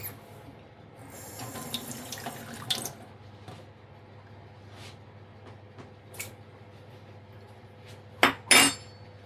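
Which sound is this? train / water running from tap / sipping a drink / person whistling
water running from tap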